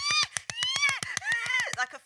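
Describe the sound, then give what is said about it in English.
A person's voice imitates a honking sea lion in a studio: loud, nasal, rapidly pulsing honks that rise and fall in a continuous barking stream for about two seconds. “fucking Sea Lap. SeaWorld.”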